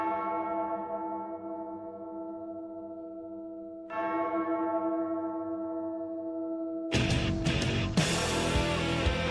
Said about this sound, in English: if we're going to play some bells, but uh, I guess this will do.